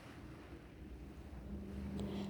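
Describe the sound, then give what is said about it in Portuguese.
A steady wash of sea waves with a low, rumbling roar and some wind noise, fairly quiet and continuous, no voices. “Abra os olhos e se permita escutar o som do mar por mais cinco minutos e vá voltando aos poucos.”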